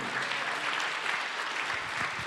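Steady, dense applause from an audience for the Lord, a continuous wash of many hands clapping at an even loudness throughout, with no voices standing out.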